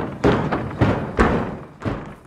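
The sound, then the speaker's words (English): A horse bangs inside a barn: four heavy, dull thuds at an uneven pace, each with a short boomy tail, fairly loud and muffled as if behind walls, with no voices. “An ominous banging from inside a barn.”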